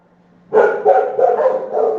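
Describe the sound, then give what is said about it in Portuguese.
Several dogs at a house with a kennel bark in a loud, overlapping burst that starts abruptly after a brief quiet moment and keeps going steadily, with no talking. “É isso que dá ter um canil em casa, parabéns. 5 mil cachorro, mais os da rua.”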